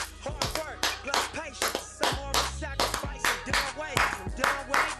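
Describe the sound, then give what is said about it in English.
Sharp, loud clap-like hits strike in a steady rhythm over a busy musical beat with deep bass and tonal sounds, filling the whole stretch without pause. “You hear all that clapping noise, all that loud noise, always yelling.”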